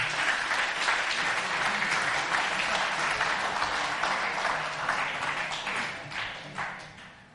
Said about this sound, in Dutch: Team, willen jullie naar voren komen? Zullen we die zo'n applaus geven, die, eh, die jongens en meiden?